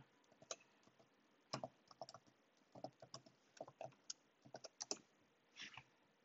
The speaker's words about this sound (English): Dude, I just really created this password uh, like a few seconds ago and I can't remember it. always have the worry that if I'm like typing a certain password.